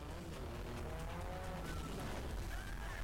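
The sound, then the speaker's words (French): Racing cars chasing each other roar past in a steady, loud rush of engine noise, with brief rising whines and a hint of tires squealing over about three seconds. No one speaks. “Par contre, à quel moment c'est pratique de, se, de se courser la gueule comme ça.”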